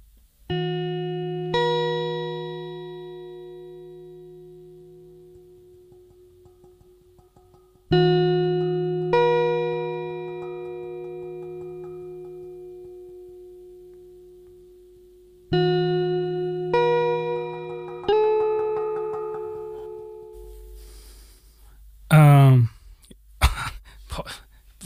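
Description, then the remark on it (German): Sparse experimental ambient electronic music, an MP3 of a record, with sustained, slowly decaying tonal chords struck in three long phrases, played through a laptop's small tinny speakers, ending with a brief warbling, pitch-sweeping electronic sound. “ähm, das Ganze geht in so eine Richtung schon, also Ambient”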